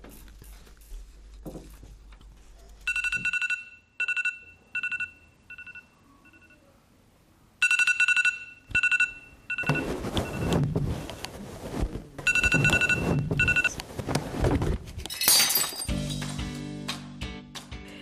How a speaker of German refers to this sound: Nächste Woche am Mittwoch ist Schulradiotag. Da könnt ihr den ganzen Tag Sendungen von Kindern und Jugendlichen hören. Hier ist der Jingle.